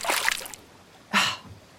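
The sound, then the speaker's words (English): A fish leaps from the water of a lake with a brief splash, then a second, sharper splash follows about a second later as it drops back in, alone. “A fish suddenly flings itself up out of the water like a silver torpedo and lands with a giant splash.”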